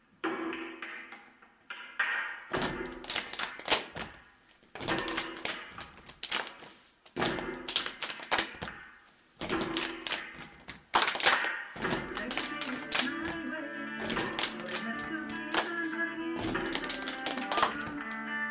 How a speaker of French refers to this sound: C'est une vidéo dans laquelle les acteurs jouent des percussions corporelles sur une chanson.